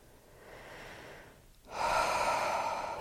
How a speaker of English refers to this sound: breathing out, letting go.